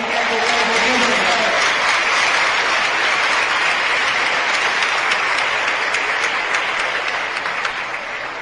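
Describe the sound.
A large audience of about 1,500 people claps steadily for a speaker, a dense wash of applause that stays loud and even for several seconds, with faint voices mixed in at the start.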